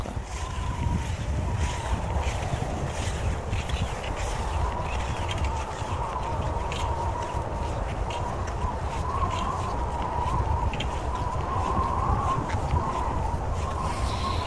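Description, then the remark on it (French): A fierce blizzard wind roars steadily and loudly throughout, a dense rushing noise with a thin howling whistle riding on top, no pauses and no voices. “Et ça peut être assez perturbant parce que déjà, c'est ultra bruyant d'être dans un blizzard.”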